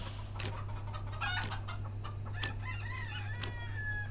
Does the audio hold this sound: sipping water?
no